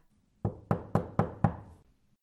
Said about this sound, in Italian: Quella capanna deve essere abitata da qualcuno, dice Pinocchio. Andiamo là e bussiamo. Infatti vanno e bussano alla porta.